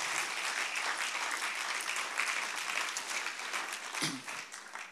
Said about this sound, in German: Gebt ihnen einen mega Applaus.